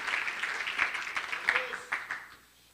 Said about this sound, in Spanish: Ah, gloria a Dios. Démosle un aplauso al Señor, hermano. Gloria a Dios, gloria a Dios.